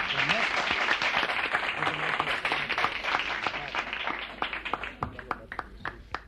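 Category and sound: crowd, studio audience applause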